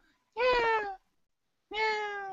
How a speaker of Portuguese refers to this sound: Tem um gato miando aí loucão aí. É o meu.